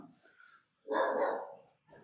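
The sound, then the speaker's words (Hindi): A dog barks once loudly, a sharp, full bark that rings for about a second, with quieter rustling before and a brief sound just after. “कुत्ता भोका देखा अब मैं इसको एडिट नहीं करूंगा नहीं है टाइम मेरे पास एडिट करने का बैर विथ मी ठीक है सॉरी फिर से भोका क्या करूं इसका पड़ोसियों को जाके कंप्लेन भी नहीं कर सकते”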